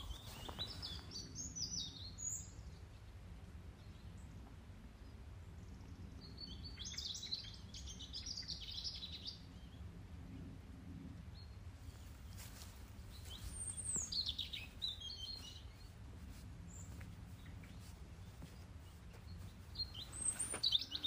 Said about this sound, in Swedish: Eh, helt underbar dag och jag vill förmedla denna underbara fågelsång som vi hör här. Om vi bara lyssnar.